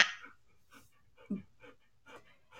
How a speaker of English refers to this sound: that you pant is that you panting are, are uh, you, uh, no that would be my dog